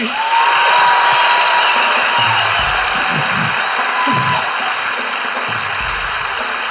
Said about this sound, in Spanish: Hermano, un fuerte aplauso